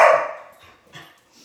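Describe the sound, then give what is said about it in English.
A sharp, hoarse deer bark rings out loudly, followed by a fainter, shorter second call about a second later, heard outdoors with no one speaking. “We've had a deer by here lately, so um, it's kind of cool. Um, I hope it's the deer.”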